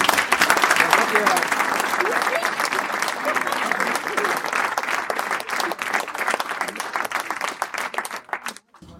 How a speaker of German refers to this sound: Erstmal nochmal einen ganz riesen Applaus von uns allen.